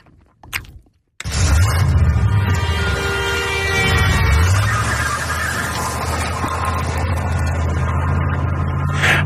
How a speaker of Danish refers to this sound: Og, skulle lige sætte øh, den lyd på, det er jo det er ret fedt. Altså billyden? Ja.